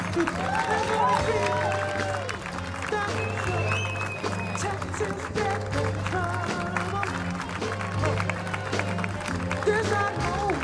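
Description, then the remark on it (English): A large crowd claps and cheers steadily for about ten seconds, a dense, loud wash of applause with scattered shouts and whoops rising above it and a low hum underneath. “Don't stop clapping.”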